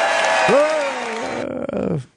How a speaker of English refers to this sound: Everyone's cheering.